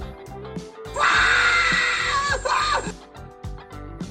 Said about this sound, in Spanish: y, a la hora de la vacunada andan gritando, este, ¿cómo se le llama? ¿Cómo decía Garfield, así de Garfield, este, pavorosamente, algo así, ¿no? Entonces, o sea, gritaban algo así, mira.